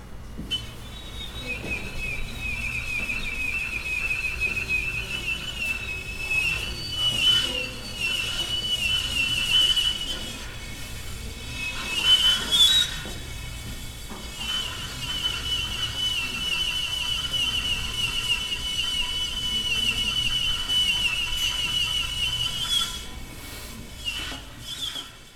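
A trumpet performance piece: long, sustained, shrill high tones held over a breathy hiss, with a brief lull midway before the piercing notes resume, and no voices.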